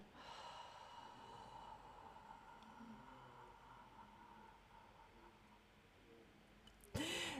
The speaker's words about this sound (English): That's the example of the four, six, eight breathing, interval breathing